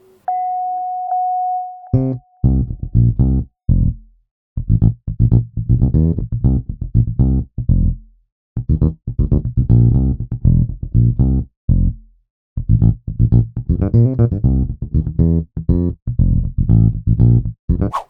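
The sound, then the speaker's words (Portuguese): A short steady electronic tone gives way to an electric bass guitar playing a loud, rhythmic riff of repeated plucked notes with a slightly distorted edge, with brief pauses between phrases and no voices. “A banda está quase completa e agora vocês encontram a Foca, que já sabe o que está acontecendo e logo se oferece para tocar baixo.”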